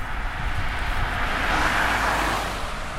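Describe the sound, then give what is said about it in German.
A steady engine-and-road rumble from a passing car, swelling slightly louder around the middle before easing off again, with no voices present. “Möchtest du, dass es wie ein fahrendes Auto sich anhört?”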